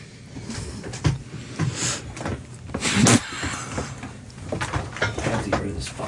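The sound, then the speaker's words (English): A chair creaks and scrapes in a series of uneven bursts during the Ron and Fez show, with one louder grinding scrape in the middle and rustling movement throughout. “I'll just fucking stand up during the show. I cannot stand that chair.”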